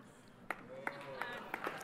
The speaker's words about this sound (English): Hold your applause till the end, please.